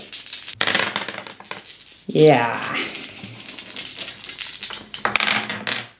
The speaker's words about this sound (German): Und für die Bildung würfelt man die 3W6 plus 3.